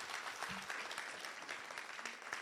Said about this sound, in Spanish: Si usted lo cree, déle un fuerte amén al Señor y un aplauso fuerte a Jesús.